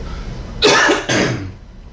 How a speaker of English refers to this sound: Why am I coughing? I don't know.